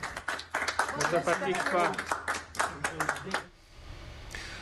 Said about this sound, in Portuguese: Na Bélgica, um médico urologista ficou internado na UTI do hospital em que trabalha por três semanas, após ele e toda a equipe serem infectados pelo coronavírus. Antes de ir para casa com a esposa, ele também recebeu uma salva de palmas dos colegas.